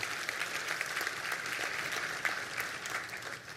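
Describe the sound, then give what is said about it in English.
An audience claps steadily and continuously, a dense wash of many hands with no pauses and no voices standing out, holding an even loudness for a few seconds. “You can applaud that, sure.”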